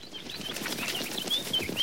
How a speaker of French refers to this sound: Ah Comment le merle a jailli des ronces Comme une fusée, droit vers le ciel.